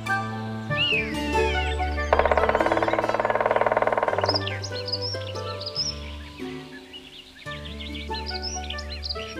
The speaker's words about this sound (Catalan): el picot verd, en Simó, que amb el seu bec llarg estava picant i repicant el tronc de l'alzina gran